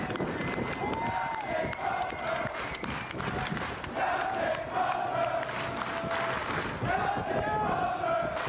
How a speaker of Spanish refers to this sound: Esto que estamos escuchando es... Em, pues a todas las personas que estaban a bordo de este portaaviones militares, todos, cerca de 5.000 tripulantes gritando el nombre de Brett Crozier.